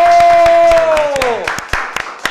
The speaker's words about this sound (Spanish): Así que quiero que lo despidamos con un fuerte, pero muy fuerte aplauso.